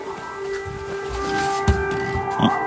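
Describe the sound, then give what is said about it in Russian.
An air raid siren sounding an air raid alert holds a steady, droning wail, muffled as heard through a window, with low rumbling and scattered thumps from the surroundings underneath. “Вот, началась воздушная тревога.”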